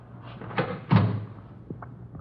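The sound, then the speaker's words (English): A door opens and shuts, with a sharp clack followed by a heavier thud, then a faint knock as it settles. No one speaks, and a low hum continues. “It's right through that door.”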